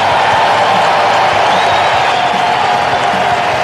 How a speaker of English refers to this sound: Performance of the season for Patrick Corbin, and he gets a deserving standing ovation.